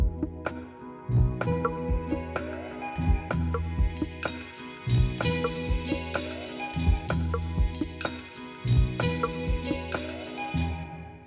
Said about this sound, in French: Tu composes une série de sonneries scolaires originales que tu leur fais écouter pour connaître leur avis. Sonnerie 1